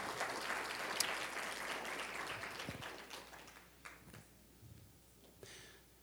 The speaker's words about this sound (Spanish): Un aplauso por ellos, iglesia. Un aplauso por ellos.